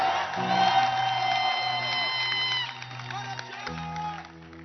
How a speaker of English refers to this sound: I want you to clap your hands for Jesus and give five people a high five. Five people high five. And you may be seated in the house of the Lord with the loudest hand clap of your life.